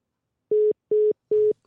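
Three short, steady telephone ringing tones beep in an even rhythm, clear, with brief silences between them and no voices; a phone call to an expert that goes unanswered.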